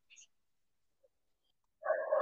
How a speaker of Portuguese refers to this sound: O cachorro aí tá dando boa noite também, hein?